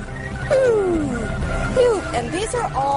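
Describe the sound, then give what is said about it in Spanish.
Radio emissions from Jupiter's magnetosphere: a dense, roaring static rumble with several eerie whistling tones that glide downward, one long sweep followed by shorter ones, loud and continuous throughout. “nuestra radio de onda media podría sintonizar con esos extraños sonidos de la esfera magnética de Júpiter”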